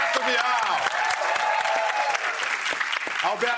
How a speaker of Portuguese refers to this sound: estamos aqui conversando com Anderson Varejão. Aplaudam, por favor.